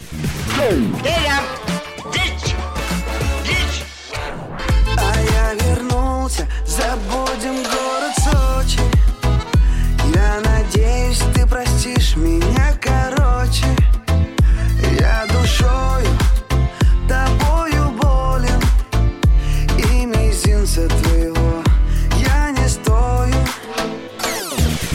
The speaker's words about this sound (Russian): Давай, слушай песню.